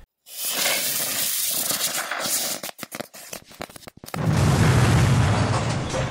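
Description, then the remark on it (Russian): A loud, steady hiss like a firework launching as potted money trees shoot out of their places, leaving a purple trail in the air, breaking into a rapid run of sharp crackles and pops, then giving way to a heavy roaring rumble. No voices. “Через мгновение с громким шипением ее денежные деревья вылетели со своих мест и, оставляя в воздухе фиолетовый след, упали где-то в гардеробе.”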